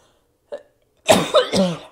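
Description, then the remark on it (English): A short catch of breath, then a loud burst of harsh coughing, two or three rough coughs in quick succession from a person who is still sick. “Excuse me, I'm going to cough.”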